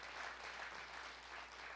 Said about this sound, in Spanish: Sí, aplauden al Señor.